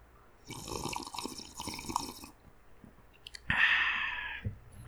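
Wet slurping as someone sips hot chamomile tea with a teaspoon of honey for about two seconds, followed by a short pause and a louder, breathy hiss-like rush. No talking.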